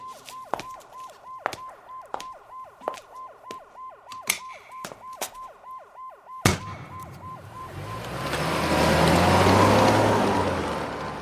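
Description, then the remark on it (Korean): An ambulance siren wails on a road as the ambulance arrives, in quick, repeating mid-pitched pulses for about six seconds, then cuts off at a sudden sharp bang followed by a swelling, rushing noise. No one speaks. “요 구급차가 도착했을 때 조철 씨가 여기 계시면 안 됩니다.”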